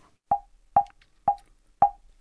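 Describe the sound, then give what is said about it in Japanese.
Four dull, fleshy slaps on a knee, evenly spaced about half a second apart, each a short percussive thump with a quick decay and quiet gaps between, no voices. “膝を叩いたり叩かなかったりと私はもごもご言ってまして”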